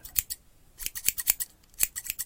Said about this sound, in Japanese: こういう、あの、ハサミの音みたいな音がね、とても繊細に入りますね。これは非常にいいマイクだと思います。